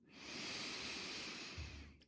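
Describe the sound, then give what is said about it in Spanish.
A long, steady, deep breath drawn in through the nose to fill the lungs during a guided meditation, a soft airy hiss lasting about two seconds, fairly quiet, with no talking. “Y vas a cerrar un momento los ojos, vas a hacer una respiración profunda por la nariz, inhalas y llenas tus pulmones.”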